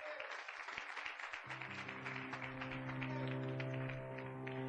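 A crowd claps in steady, dense applause welcoming a speaker, holding at an even loudness throughout, while a low sustained musical chord or hum fades in underneath after the first second or so.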